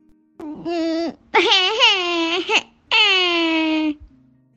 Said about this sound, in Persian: اون روز گرگی برای اولین بار گریه کرد